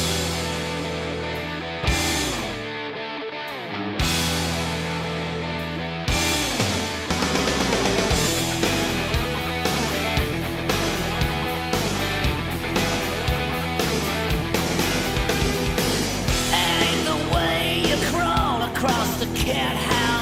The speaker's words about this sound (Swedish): Visst öppnade han med … på …